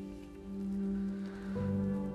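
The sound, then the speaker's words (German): Small hail-like pumice particles, falling from the sky on Pompeii shortly after the explosion, patter steadily onto roofs, streets and squares in a dense, continuous shower, swelling slightly midway, with sustained low droning musical tones underneath and no voices. “Kurz nach der Explosion prasseln kleine Mengen Hagel, hagelähnliche Partikel vom Himmel auf die Dächer, Straßen und Plätze von Pompeji.”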